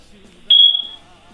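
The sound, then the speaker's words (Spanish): A single sharp, high-pitched chirp from a smoke alarm signaling a low battery rings out once, loud, then fades quickly against faint background murmur. “que te voy a traer unas pilas para la alarma.”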